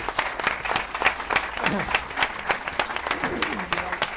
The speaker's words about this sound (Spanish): Un aplaudiment.